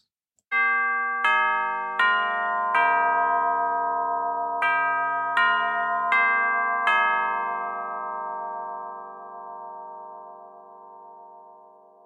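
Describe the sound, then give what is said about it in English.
A time melody clock chimes a slow melody of eight bright, ringing tones, each struck note overlapping the last, then the final chord sustains and gradually fades away. No one speaks. “If you guessed a time melody clock, you're right.”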